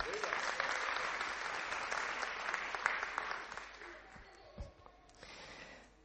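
A group claps steadily for about four seconds, a dense crackling patter that thins out and fades, followed by a brief lull and a soft final stir of noise.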